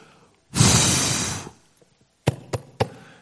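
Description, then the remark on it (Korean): A long, forceful breathy blow, someone blowing dust off a Bible, followed after a short pause by three sharp slaps on it in quick succession, fairly loud. “이렇게 치우서 들어오는 교인이 후탁 교인이래요.”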